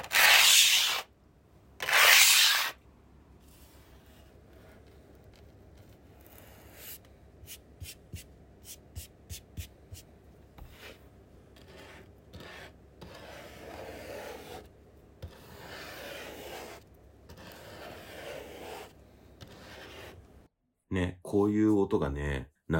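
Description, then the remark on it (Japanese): Sand art is made by hand in an artist's atelier: sand is swept and drawn on a surface, two loud swishes open, then a long stretch of softer rubbing and scratching with light taps, before a brief louder sound at the end. “あと、せっかくね、アトリエにお邪魔したっていうこともあって、サンドアートを間近で見せていただいて、で、あ、こういう音がしながら作るんだなっていう音も取ってきたので、よかったらちょっと聞いてみてください。”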